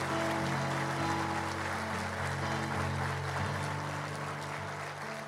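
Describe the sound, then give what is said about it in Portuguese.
A crowd claps steadily for several seconds in applause for Jesus, a dense wash of applause at fairly even loudness, with a sustained low musical tone humming underneath. “Dê uma salva de palmas a ele.”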